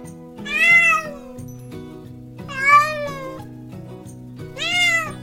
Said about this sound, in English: Meow, meow, cried the cat.